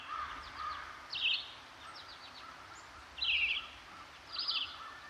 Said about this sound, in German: wenn du uns an dieser Stelle so leichtes Bäume rascheln, so ein bisschen Vogelgezwitscher so rein. Ein Waldgefühl. Ein Waldgefühl, dass wir einfach mal kurz auf so einer kleinen Lichtung hier sitzen können